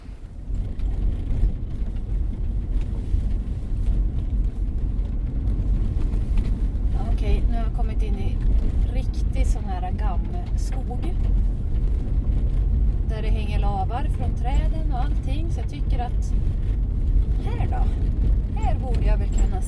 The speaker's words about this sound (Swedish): Nej, det var nog inget bra renställe det här jag får ta mig tillbaka till bilen och köra vidare helt enkelt.